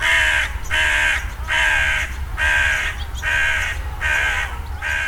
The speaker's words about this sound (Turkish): Karga deyince tek bir türden bahsetmiyoruz. Ama bu karga deyip geçtiğimiz tür İstanbul'da bir leş kargası